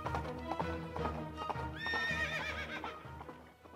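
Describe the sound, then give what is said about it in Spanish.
A rider mounts a horse and rides off: hooves pound in a steady galloping rhythm, loud, while the horse lets out a high, wavering whinny midway through. No voices are heard. “Sutherland decidía al montar su caballo y huir en busca de la aparente fuerza militar”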